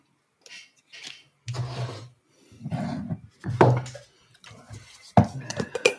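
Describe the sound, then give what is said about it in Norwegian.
A distillery spirit is topped up into a tasting glass in several short bursts, with clinks and knocks of glassware between them. The sounds are moderately loud and uneven, and no one speaks. “Og så skal jeg, fordi at vi nå jeg må etterfylle litt Oi.”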